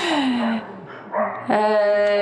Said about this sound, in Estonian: koer ilmselt, ilmselgelt tahab ka kaasa rääkida